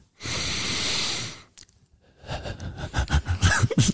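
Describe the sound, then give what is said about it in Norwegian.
A single loud, forceful exhale through the nose, a steady breathy rush lasting about a second, imitated by a voice, followed by a pause and then a run of short voiced sounds. “puster sånn ut og smekker det.”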